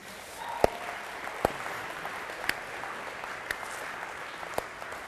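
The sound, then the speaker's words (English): A church audience applauds steadily at a moderate level, a dense wash of clapping with a few sharper individual claps popping out about once a second, welcoming a couple invited up for a church update. No one speaks. “Could you guys just make some noise for them?”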